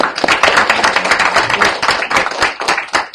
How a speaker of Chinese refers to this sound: 好，大家掌声。